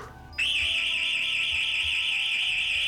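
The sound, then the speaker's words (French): An intruder alarm suddenly starts up and keeps blaring, a loud, high, steady electronic tone with a slight warble and a harsher buzzing edge, running continuously with no talking. “Eh, mais qu'est-ce que c'est C'est anti intrusion.”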